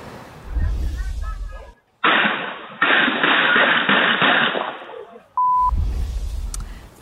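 A rapid string of sharp gunshots fired by a gunman at a residential property, one after another for a few seconds, crackly and muffled as captured on security camera video, with a tinny beep near the end.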